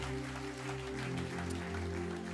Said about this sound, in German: Yes, come on. Das ist ein guter Moment, Gott einen Applaus zu geben.